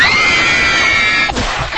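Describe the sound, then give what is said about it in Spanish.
A loud crowd of Spanish female fans screaming in sustained, high-pitched unison, a dense wall of shrieks that briefly dips before swelling again. “Y pues bueno, vamos a escuchar a las fans, a las mujeres que gritan y lo reclaman.”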